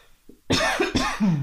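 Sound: cough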